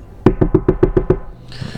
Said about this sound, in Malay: Tiba-tiba ada bunyi ketukan di tingkap